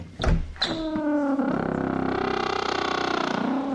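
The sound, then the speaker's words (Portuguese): A few knocking thumps from a misaligned door, then a long, loud grinding creak that drags on for about three seconds with a rough, stuttering rasp, with no voices. “Olha a porta toda desalinhada, rangendo.”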